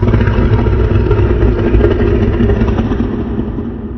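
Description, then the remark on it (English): A low, menacing growl rumbles steadily for several seconds, deep, with a rough texture that eases slightly toward the end. No one speaks. “That's when I heard, when we both heard, something that sounded like a growl.”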